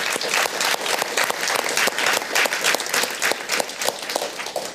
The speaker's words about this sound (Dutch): Dames en heren, mag ik een applaus voor de studenten.